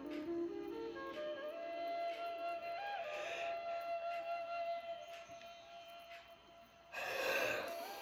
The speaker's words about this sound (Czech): Já u toho vždycky zívu, když je to hodně silné.